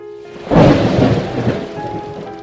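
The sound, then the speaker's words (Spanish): A deep roll of thunder breaks in after a brief lull and rumbles for a couple of seconds over a steady hiss of heavy, stormy rain, during a dark lightning storm, heard while driving with rain on the windshield; no voices present. “Estaba oscuro, los semáforos intermitentes los relámpagos cegaban y los truenos me hacían sentir como si estuviera atrapada en una película de terror.”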